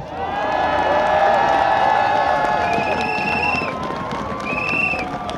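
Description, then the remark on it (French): A dense crowd at a union street demonstration against pension reform, more than 20,000 people, cheers loudly and continuously, with shrill whistles and horn-like tones cutting through the steady roar of many voices. “Je puis vous annoncer que nous sommes aujourd'hui plus de 20 000 dans les rues du monde.”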